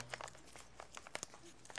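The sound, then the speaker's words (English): A paper scroll being unrolled and handled, with irregular crinkly rustles and a few sharper crackles over about two seconds, fairly quiet with no voices. “Now I can continue my sermon because I have my scroll.”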